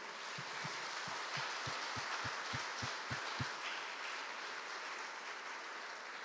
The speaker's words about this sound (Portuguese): Aplauda ele bem forte, irmãos.